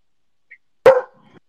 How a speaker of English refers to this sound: Sorry, that's my dog. Yeah, there's a Toshi. Be quiet.